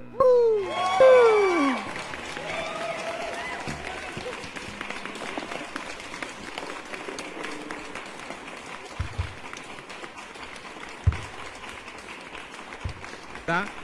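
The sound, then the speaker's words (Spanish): An audience breaks into loud, sustained applause with scattered cheers for a quiz team, the 'espías de Cristo', opening with a few swooping whistle-like tones before the dense clapping carries on steadily to the end. “¡Aplauso fuerte!”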